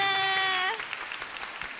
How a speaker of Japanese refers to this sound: うわいい拍手ですね。